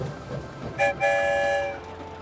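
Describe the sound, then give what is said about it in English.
A train rumbles along with a steady low roar, and a loud, bright horn blasts twice in close succession over the rolling noise before fading slightly. “I wonder where the story train will lead us this time.”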